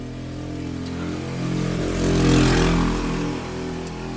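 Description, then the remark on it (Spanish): A motorcycle engine revs outdoors, its steady mechanical drone swelling louder and higher in pitch midway before easing back down. There is no talking, just the continuous rumble of the engine. “Audio, patrocinado de moto por un pendejo.”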